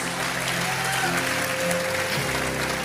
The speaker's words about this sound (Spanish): Alguien le da un aplauso a Cristo Jesús.